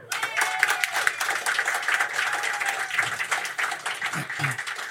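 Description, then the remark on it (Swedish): A live audience applauds steadily, a dense wash of many hands clapping at once, sustained throughout with no pause. “Kan vi ta en applåd för honom?”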